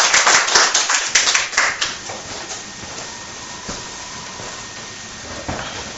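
An audience bursts into applause, a dense patter of many hands clapping for about two seconds before it thins out and fades, leaving a steady background hiss with a few scattered late claps.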